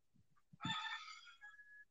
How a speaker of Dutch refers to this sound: ja, dat is eh, Henny, mijn haan. Je eh, praat ook even mee.